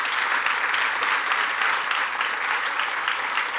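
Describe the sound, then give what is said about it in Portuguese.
Steady, dense applause from a large audience, given to the Lord, many hands clapping at once in a continuous wash of sound that holds at an even level throughout, with no voices standing out. “E, e realmente, aplauda o Senhor, isso mesmo.”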